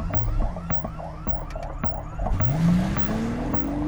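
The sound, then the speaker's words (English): A house alarm, set off as the front door is opened, squeals loudly through the neighborhood: a rapid electronic warble with repeating clicks that gives way to a rising, piercing wail, with a low rumble of traffic underneath and no voices. “The squeal of the alarm shattered the quiet of the neighborhood”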